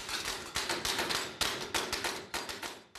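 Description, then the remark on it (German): Rapid, repeated metallic hammer strikes ring out as the base of a metal vessel is hammered into shape by hand, each blow sharp and bright with a short ringing decay, landing in an uneven working rhythm with no voices. “Du kannst halt nicht einfach so klopfen, wie du willst.”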